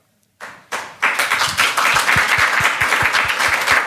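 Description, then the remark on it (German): After a moment of silence, an audience breaks into applause that quickly swells into dense, sustained clapping, with a steady rhythmic beat running through it. It sounds loud, with no talking. “Danke für den Applaus.”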